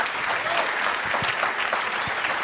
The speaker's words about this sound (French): Ah, ça, ça, quand même quelques applaudissements, non 8 mois de travail, les gars, pour vous.